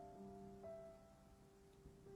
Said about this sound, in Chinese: 今天我在的城市下起了雨，不知道你那边的天气怎么样？听着窗外淅淅沥沥的雨声，就好像思念在敲打着心房。